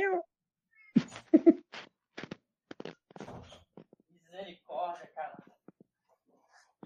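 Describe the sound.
A female cat meows repeatedly because she wants to go out, short insistent cries with gaps between them, while a person's voice is heard briefly in between.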